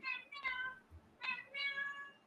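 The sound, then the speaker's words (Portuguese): A cat meows, a quick run of four whiny, drawn-out cries in two pairs, fairly loud over a faint background hiss. “Esse gato ele não para. Ele passa o dia todo falando.”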